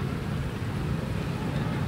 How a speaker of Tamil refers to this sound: இந்த நிகழ்ச்சியை பார்த்து கொண்டிருக்கிற பிரமத அன்பர்கள் அவர்கள் ஒரு கணம் எண்ணி பார்த்திருக்கக்கூடும் ஏன் இங்கே மழை பொழிந்து கொண்டிருக்கிறது விட்டு விட்டு மழை பெய்கிறது